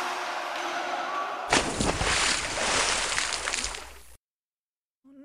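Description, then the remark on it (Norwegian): A drink spills with a sudden, loud splash, a sloshing liquid rush that lasts a few seconds before cutting to silence; a voice briefly starts at the very end. “Hva i helvete var det plasket?”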